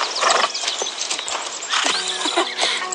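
Horse hooves clip-clop in a quick, steady trotting rhythm, sharp knocks repeating over a hissy, noisy background, with a faint tonal hum entering in the last second; a horse being ridden in a riding lesson, the rider going without stirrups.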